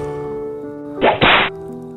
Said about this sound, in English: Two friends were walking through the desert and after a while, at some point in the journey, they had an argument. One of the friends got so angry that he slapped the other one in the face.